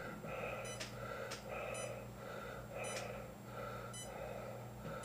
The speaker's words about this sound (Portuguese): Esse sou eu, respirando no capacete. Isso não é efeito especial.